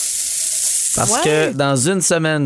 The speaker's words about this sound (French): Attention, il est désagréable, OK? Oh. Ça, là, c'est le bruit du sable.